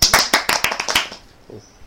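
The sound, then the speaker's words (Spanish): A short burst of applause: quick, irregular sharp claps from a small group, loud for about a second before trailing off into quiet. “Y un aplauso para los que no le gustan los churros.”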